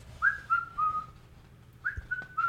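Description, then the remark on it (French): Someone casually whistles a short, lilting tune: two brief phrases of clear, gliding notes, moderately loud, with a faint low hum underneath and a quick tap between phrases. “À ces mots, le loup s'éloigne, tranquillement en sifflotant.”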